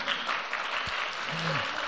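A church audience applauds a man who has just been given a book. The steady, dense applause is a continuous crackle of many hands clapping at even loudness, with a faint voice briefly audible underneath.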